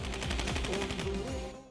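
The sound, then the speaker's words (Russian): A quick, rapid string of loud pistol shots fired into the air cracks out in steady succession for about a second, then tails off, with raised voices faintly audible underneath. “после чего достал пистолет и выстрелил в воздух.”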